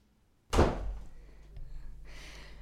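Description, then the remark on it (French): A door thuds shut with a single heavy impact that rings out and fades, followed by a soft rustle or latch noise a moment later. “J'entends mon chum parler, je vais fermer la porte, là.”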